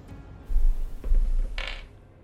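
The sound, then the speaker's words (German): A die is rolled for a perception check, clattering and tumbling across a hard tabletop in a few quick bumps, ending in a brief bright rattle before settling, with no one speaking. “Ja, du äh, machst einen Wurf auf Wahrnehmung.”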